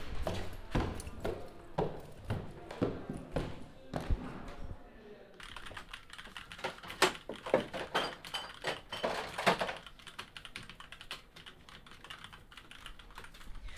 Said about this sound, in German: Ja, hier hört ihr einen kleinen Ausschnitt aus dem Publikum im Hackspace, beziehungsweise den Leuten, die hier wild vor sich hin arbeiten. Das sieht sehr eindrucksvoll aus.